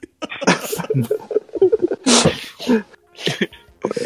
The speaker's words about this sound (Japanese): なんで咳込んだ